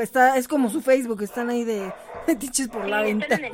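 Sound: dogs barking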